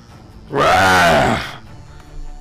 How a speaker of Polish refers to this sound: Słyszysz wrzask.